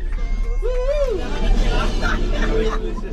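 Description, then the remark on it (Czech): Excited children's voices shout and cheer together on an amphibious bus that has just driven into the water of the Seine, with overlapping chatter and a steady engine-like rumble underneath, continuous throughout. “Podle křiku dětí je slyšet, že tohle je ta nejlepší část celé prohlídky.”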